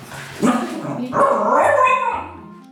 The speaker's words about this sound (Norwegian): Så hvis Ebba bjeffer i senga si også, så må hun ut på gangen til hun er stille. Når hun er stille, så får hun komme tilbake til oss, opp i hundesenga si, og der skal hun være stille og rolig.